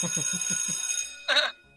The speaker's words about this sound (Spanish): Y pues va a poner como alarma de, de campana de recreo para que entre.